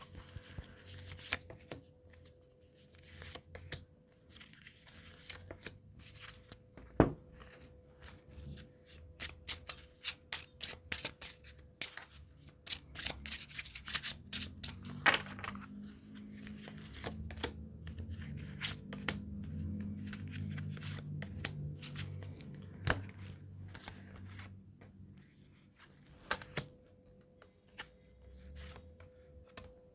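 Tarot cards are shuffled and handled for about half a minute, giving bursts of crisp riffling clicks and soft slaps, irregular in rhythm, with a faint steady hum underneath and no talking.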